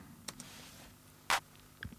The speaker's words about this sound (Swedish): Och då har jag i, när låten sen börjar, jag tänker vi kan börja lite från eh, drumsen. Så vi har en eh, snare mm. som låter så här.